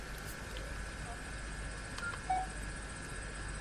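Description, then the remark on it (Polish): A single short phone keypad beep sounds midway through, clear, after a faint click, over a steady low electronic hum, as the star key on a phone is pressed to go to the home screen. “Nacisnąłem gwiazdkę, by przejść do ekranu głównego.”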